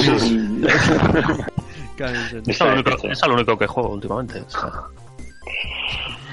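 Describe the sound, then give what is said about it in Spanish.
A person lets out a loud, rough growling roar in imitation of a tiger, then carries on talking in a normal voice. “el tigre.”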